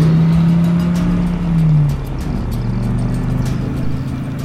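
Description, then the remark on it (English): A gray jeep's engine revs hard and loud with a strong low drone, then shifts pitch as the jeep pulls away and keeps driving, no voices present. “Come on, this gray jeep must be kidding me. Finally. You are here! Drive! Drive!”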